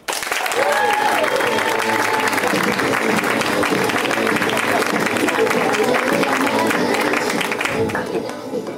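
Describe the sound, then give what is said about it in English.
A comedy show audience in Los Angeles bursts into loud, sustained applause with scattered cheers and whoops for headliner comedian Mike Lawrence, dense clapping for several seconds before it starts to taper off near the end. “You guys ready for your headliner for the show?”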